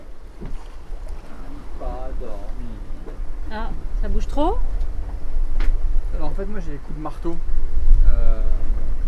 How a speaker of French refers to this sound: bateau il y a une forme qui remonte un peu bizarrement. Et l'eau, elle vient en dessous, elle fait. Ah, elle tape juste. Ça là Là, ce que ça vient de faire un boom hein.